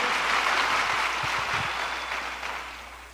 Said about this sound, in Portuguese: Não, essas palmas foram para mim, obrigado, obrigado. Por favor, aplauda minha esposa, irmãos. Ajuda aí, ajuda aí.